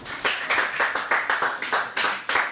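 A short burst of group applause after a child's report about Dawu Mountain in Taiwan: several hands clapping in a fairly steady, bright rhythm, with sharp repeated claps rising and falling. No one speaks over it.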